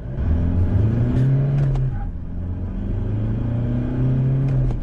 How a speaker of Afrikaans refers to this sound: Die D-Max se turbodiesel is egter grower en meer lawaaierig as sy teenstanders. Maar bygesê, hy's darm heelwat stiller op die oop pad as teen luier en laaspoed.